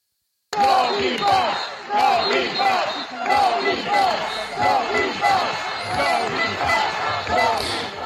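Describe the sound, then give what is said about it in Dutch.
A large protest crowd in Milan, demonstrating against the Green Pass, chants loudly in unison, voices rising and falling in a steady repeating rhythm, with sharp rhythmic beats punctuating the chant throughout. “Daar werd massaal gedemonstreerd.”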